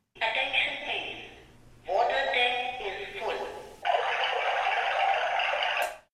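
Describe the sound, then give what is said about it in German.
An audible water tank full alert, a speaker box for visually impaired people signalling that the water tank is full, sounds in three bright, buzzy electronic bursts, each lasting about two seconds, fairly loud with nothing else beneath it. “Eine weitere Vorrichtung für sehbehinderte Menschen die hörbare Wassertank-Füllstandsbenachrichtigung.”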